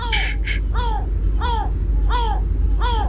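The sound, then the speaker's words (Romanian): A yellow-legged gull gives a series of loud, nasal, arching calls, about four in steady rhythm, over a constant low rumble of background noise, with a couple of harsher bursts at the start. “Abia ăsta e pescăruș cu picioare galbene.”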